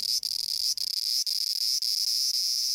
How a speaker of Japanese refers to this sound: セミってなんで鳴くのそれはね、恋をして子供を産むためさ。実は泣いてるのはオスだけで、この鳴き声でメスを誘ってるんだよ。